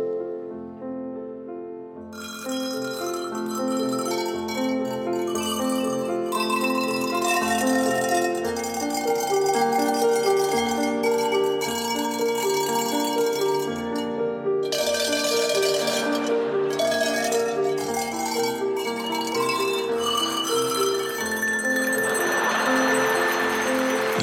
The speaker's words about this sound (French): cloches alpines, c'est des vraies cloches, hein, comme celles qu'on met au cou des vaches dans les alpages. Ils en ont une petite trentaine disposées sur la table devant eux. Elles ont chacune une taille et une note spécifique